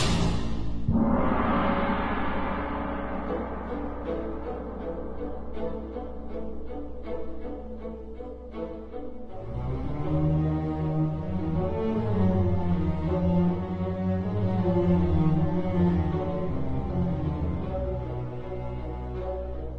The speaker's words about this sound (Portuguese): versão sinfônica do boss final.